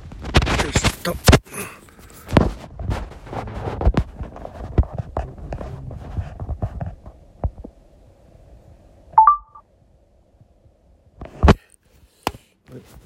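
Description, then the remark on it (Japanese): Handling clatter and taps, then a brief electronic beep followed by a crisp, sharp smartphone camera shutter click and a fainter tick, heard alone against quiet background. “シャシャッター音違ったね大丈夫かな あ取れてますね”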